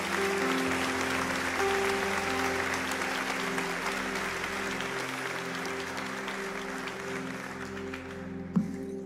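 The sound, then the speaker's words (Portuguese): An audience claps steadily for several seconds in applause for Jesus, a dense wash of applause with a low sustained organ-like tone underneath and a single sharp knock near the end. “Bata uma salva de palmas para Jesus.”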